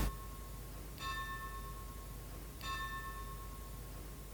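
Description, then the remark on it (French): A church bell tolls twice, slow and evenly spaced, each ringing stroke lingering with a long metallic hum, over a low background rumble, with no voices. “C'est embêtant la cloche.”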